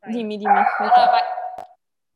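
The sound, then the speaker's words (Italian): A dog barks, a short, sharp burst overlapping a person talking, then everything cuts off into silence. “Scusate per il cane”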